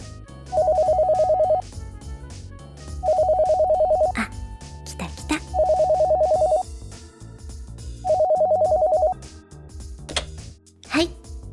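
A telephone rings four times in a steady pattern, each ring a loud, trilling electronic burst about a second long, with short pauses and a few clicks and bumps in between.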